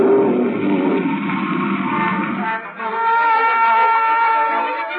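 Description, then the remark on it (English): A giant whale's huge, roaring sneeze blast, loud, surges into a sustained whooshing rush as a raft is blasted out, briefly dipping before swelling again, with ringing tonal layers riding over the noise. No one speaks. “I was right outside when that whale sneezed, and that raft shot out like a cannonball.”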